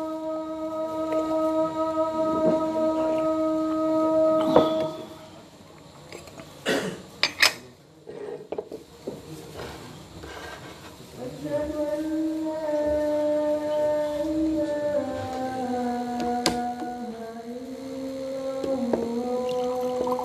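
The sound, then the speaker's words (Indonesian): An Islamic call to prayer drifts in from a mosque loudspeaker, long held notes rising and falling in a wavering melody, with a short pause and a few brief clanks partway through. “Tuh, mau dengar azan dulu sebentar, tolong lanjut.”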